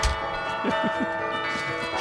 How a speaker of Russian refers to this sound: Может быть, зарядим этим колокольным звоном ваш чай?